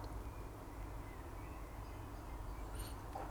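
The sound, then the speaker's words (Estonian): A steady low rumble of distant car traffic in a town fills the background, with a few faint, brief bird chirps drifting in through a window. No one speaks. “siit akna vahelt voolab sisse linnulaulu ja kaugelt kostab autode müra.”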